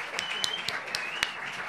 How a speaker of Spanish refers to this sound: Por favor, un aplauso enorme.